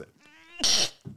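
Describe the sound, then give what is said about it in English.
A single loud sneeze: a short rising, breathy intake, then a sharp, hissing burst of air that cuts off abruptly, followed by a soft breath. “Bless you. Oh, excuse me.”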